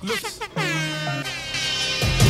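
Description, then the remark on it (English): A blaring air horn sound effect, the one hip hop DJ Cipha Sounds from New York City popularized worldwide, fires off in a few quick bursts, then holds a long, loud, brassy blast that swells to the end. “My name is Cipha Sounds, hip hop DJ from New York City, and I popularized the air horn sound effect into a global phenomenon.”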